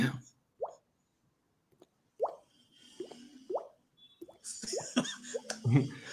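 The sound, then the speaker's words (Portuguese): A voice imitates water drops with a series of quick, rising plops from the mouth, about seven in a row at uneven spacing, ending amid laughter and noisy breathing. “Ele faz o som de uma gota.”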